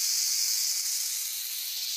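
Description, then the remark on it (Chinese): Snakes hissing in one long, steady, airy stream of high-pitched noise that holds at an even level for about two seconds, with no voices. “这个时候，猫头鹰大哥感觉到肚子里好多东西钻来钻去，肚子里还传出好多声音：“ 嘶嘶嘶嘶嘶，要下雨啦！”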